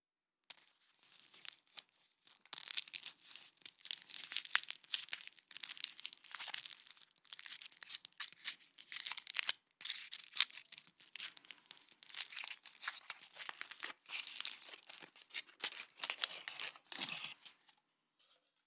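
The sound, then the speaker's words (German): The crinkly foil packaging of a chocolate Santa (Schoko-Nikolaus) crackles and rustles for most of the stretch as it is unwrapped, a dense run of small crisp snaps and scratchy crinkles at moderate loudness, with no voices. “Was für ein Geräusch macht die Verpackung, wenn du sie löst? Ein Knistern, ein Rascheln.”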